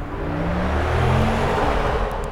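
An electric car's exterior sound: a steady, loud synthetic hum with low tones gliding gently upward over a broad whooshing rush, sustained for a couple of seconds without any talking.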